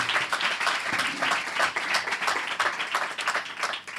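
A crowd applauds steadily for a musician welcomed as a guest on the show Fanáticos, many hands clapping in a dense, continuous patter that holds fairly loud for a few seconds before tapering slightly at the end.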